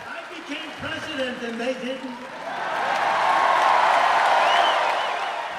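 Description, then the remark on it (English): A large crowd at a political rally for President Trump in Duluth erupts into loud, sustained cheering and roaring that swells after a few seconds of raised voices and shouting, filling the space with a dense wall of noise. “This was my first rally, and Terri was right. The audience was really loud.”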